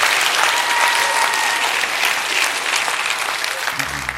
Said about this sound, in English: Would you clap your hands real big and say, I receive that tonight?